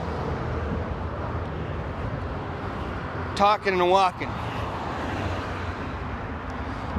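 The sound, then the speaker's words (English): Steady outdoor roar of road traffic and wind rumbles throughout at a constant level, with a man briefly speaking over it partway through while on his way back from dropping a truck off at a shop. “So forgive the traffic noise and the wind”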